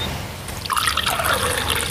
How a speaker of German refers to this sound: Ich schenke dir mal kurz ein bisschen Wasser nach. Wir quasseln hier so viel, ne? Achtung, jetzt, jetzt kommt ein, äh, ein, ein Gießgeräusch.